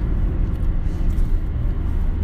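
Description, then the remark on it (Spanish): A steady, low rumbling drone of road and engine noise heard from inside a car driving on the commute to and from work, continuous and fairly loud with no voices. “De hecho, el podcast lo empecé conduciendo y el 99%, si no más, está grabado en el coche.”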